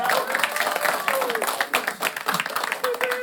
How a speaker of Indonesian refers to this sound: Tepuk tangan dong lagi buat kalian semua yang ada di sini.